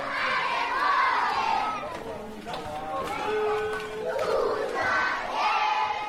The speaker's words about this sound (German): Die Kinder hinter der Campmauer hört man schon von weitem.